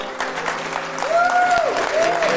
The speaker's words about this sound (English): Yeah, and we're going to clap together